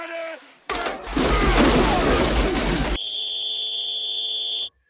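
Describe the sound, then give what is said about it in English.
A loud burst of crashing noise gives way to a long, steady, shrill referee's whistle, held for nearly two seconds to start a timed segment, before cutting off abruptly. “Start on the whistle, end on the buzzer.”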